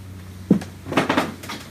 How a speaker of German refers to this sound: Es knarrt auch.